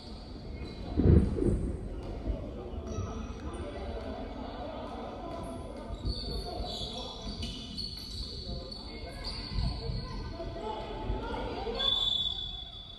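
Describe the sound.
A basketball being dribbled on a hardwood court, its repeated thuds set against a noisy arena crowd, with faint voices and high squeaky sounds drifting through the background.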